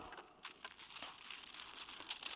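A sheet of paper crinkles and rustles, a steady run of soft crackling with a few sharper snaps scattered through it, quiet and with no voices.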